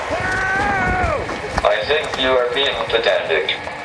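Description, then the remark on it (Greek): Brian Cox lets out a loud, sustained scream that drops sharply in pitch, followed by further strained vocal cries over rumbling background noise, as he is supposedly run over by Stephen Hawking's wheelchair in a Monty Python sketch. “Η κραυγή που ακούτε ανήκει στον ίδιο τον Brian Cox, τον οποίο υποτίθεται ότι πατά με το καροτσάκι του ο Stephen Hawking σε ένα από τα σκετσάκια που ετοίμασαν οι Monty Python.”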